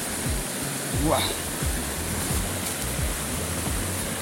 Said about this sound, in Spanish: entonces encontramos esta hermosa cascada, bellísima para foto. Vamos para allá. Mire cómo se ve la cascada cuando usted la va bordeando, es ¿eh? como aproximadamente 3 metros.